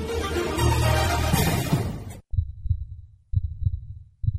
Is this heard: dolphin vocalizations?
no